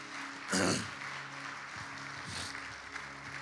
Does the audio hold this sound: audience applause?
yes